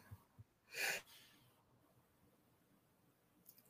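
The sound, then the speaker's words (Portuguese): A single sharp sneeze bursts out loud, preceded by a couple of faint clicks and followed by quiet with no one talking. “foi espirrar”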